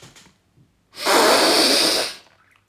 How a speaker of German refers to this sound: Und ich habe jetzt bewusst durch die Nase sehr laut eingeatmet, mhm. damit ihr auch alle hört, dass ich gleichzeitig dieses Geräusch erzeugt habe mit Luft, die aus dem Mund rausgequetscht worden ist und dabei eingeatmet habe durch die Nase.